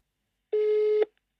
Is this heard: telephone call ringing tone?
yes